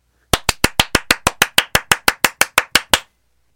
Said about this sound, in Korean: 물개 박수 신청이 들어오기 시작했군요. 축하할 일이 있을 때 나오는 전매 특허.